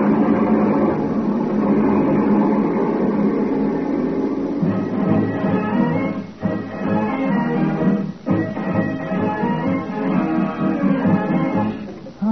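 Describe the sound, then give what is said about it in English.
A truck rig roars along a highway at speed, its engine a loud, steady rumble with a humming, tonal whine layered on top, briefly dipping twice before surging on. No one speaks. “I'm going to highball down the highway with this rig really rolling.”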